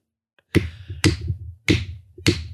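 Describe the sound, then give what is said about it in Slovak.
Four loud, crisp finger snaps at a slightly uneven pace, each a sharp crack followed by a short, low ringing tail, with no talking. “Ty kokos, jaké príklepy. Strašné masívne lúsky.”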